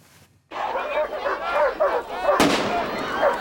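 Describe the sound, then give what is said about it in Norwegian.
A single sharp bang from a tear gas cartridge cuts through a loud, chaotic din of barking police dogs and shouting, as furious demonstrators, some from the Blitz scene in Oslo, are held back at a neo-Nazi concert in Hokksund, Norway, on 22 July 1995. The noisy commotion continues after the blast. “Politihunder bjeffer og det smeller fra tåregasspatroner, mens rasende demonstranter bl.a. fra Blitz-miljøet i Oslo holdes tilbake.”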